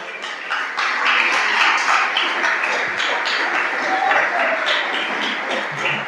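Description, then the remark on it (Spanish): An audience applauds for the Lord during a church sermon, steadily for about six seconds, a dense wash of many hands clapping at an even loudness, with a murmur of voices mixed in. “Lo tercero, denle un aplauso al Señor si quiere hacerlo, por favor.”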